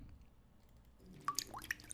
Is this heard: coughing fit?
no